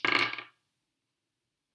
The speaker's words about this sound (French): Mais si tu en as que deux, vous passez simplement les dés d'un joueur à l'autre. Alors, le premier joueur lance ses dés.